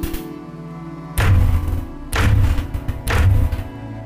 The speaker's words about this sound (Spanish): El silencio en el comedor se rompió cuando sobre la puerta principal se escucharon tres golpes.